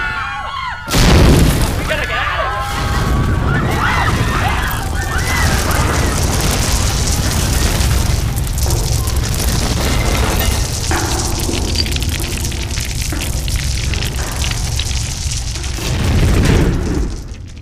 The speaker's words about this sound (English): As the tunnel collapses and the world caves in around them, the bodies of the slaughtered and mutilated science fair which once littered this passage now lie buried under tons of soil and rock,